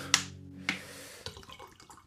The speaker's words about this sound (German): So, ich gieße dir mal eben was ein. Ja, danke.